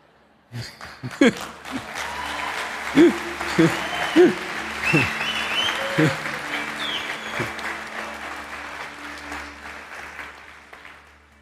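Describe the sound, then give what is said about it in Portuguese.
An audience breaks into steady, sustained applause lasting around ten seconds, with scattered shouts and cheering voices rising above the clapping before it gradually thins out. “Que aí, quando eu faço isso, aparece atrás: aplausos.”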